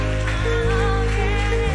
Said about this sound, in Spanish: ¿Cuántos lo creen y pueden celebrar a Dios y aplaudirle?